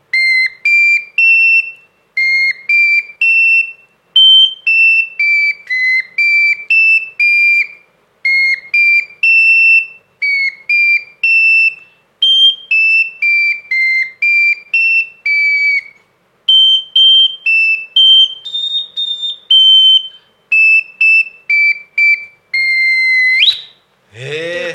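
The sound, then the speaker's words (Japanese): A tiny, shrill wind instrument plays a quick run of high, pure notes stepping up and down in short phrases, with brief pauses between, ending in a sharp squeak and a louder burst. “結構音階の数あるんですね 一応ね、はい、個で、はい、ドレミファソラシドまで吹けます、えー、指をいろいろ変えて頭の体操です、えー、4個で八音出せるんですか出せます”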